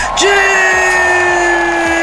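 Loud crowd cheering and applause, a dense, steady roar with one long, held whoop ringing above it for nearly two seconds.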